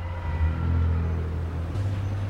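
Steady low rumble of busy city street traffic on Atlantic Avenue in downtown Brooklyn, New York, with engines of cars and heavier vehicles droning continuously, a deeper engine tone swelling near the end; no voices.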